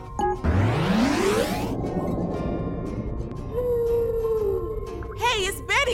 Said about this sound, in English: the blue whale. At least we have her around to protect us.